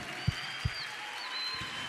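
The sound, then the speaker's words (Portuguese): Steady audience applause fills the whole stretch, a dense even wash of many hands clapping together, with a couple of brief low thumps near the start and no voices. “Vamos aplaudir forte, gente.”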